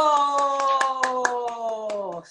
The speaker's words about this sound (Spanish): ¡Aplausos!